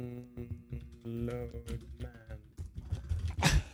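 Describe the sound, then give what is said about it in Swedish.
Irregular clicks of typing on an American-layout computer keyboard while searching online, mixed in with voices and a tonal, humming background, ending in a louder burst of keystrokes. “nu googlar jag och … här fram om det heter Skriv eh, Torrent Downloader. fan, jag har amerikanskt tangentbord.”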